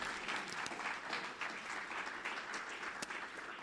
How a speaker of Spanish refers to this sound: si, le, si le puede dar un aplauso a Dios ahí, un aplauso a la presencia de Dios.